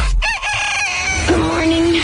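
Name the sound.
rooster crowing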